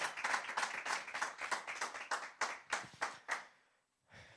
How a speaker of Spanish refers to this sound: Amén. ¿Cuántos le dan un aplauso al Señor por ese reinicio que viene?